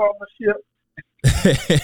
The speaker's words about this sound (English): excuse me, hold on one second. hate to clear my throat on the uh, mic.